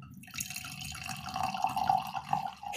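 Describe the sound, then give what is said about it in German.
Wine pours steadily into a glass for a few seconds, a continuous trickling splash with a rising, ringing tone as it fills, fairly quiet. “Ich habe nicht uriniert, sondern es war der Wein.”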